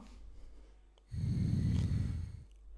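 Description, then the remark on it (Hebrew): A single breathy rush of air blown through a trumpet mouthpiece without tightening the lips, lasting just over a second, fairly loud, a hollow hiss with no musical tone, preceded by a quiet pause. “בקצה אחד של הצינור יש פייה, שנוגעת לנו בפה, ולכן שמה פייה, וכשאנחנו אה, נושבים בה, זה נשמע ככה.”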